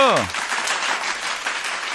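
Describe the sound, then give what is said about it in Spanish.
A brief voice trails off at the start, then a dense, steady wash of applause from a crowd fills the rest, loud and sustained without pause. “¡Fuerte aplauso!”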